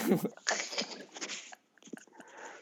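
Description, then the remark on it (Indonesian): Crunching as something crisp is bitten and chewed, a burst of sharp crackly bites followed by a brief pause and a few softer chews. “Wah enak rasanya, eh, renyah ya. Renyah.”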